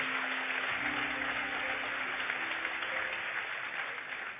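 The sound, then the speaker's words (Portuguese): An audience applauds the Lord in a dense, steady wash of clapping that stays loud and even throughout, with a faint low tone humming underneath and no one speaking. “Se você vai aplaudir ao Senhor, aplauda forte e faça isso com convicção.”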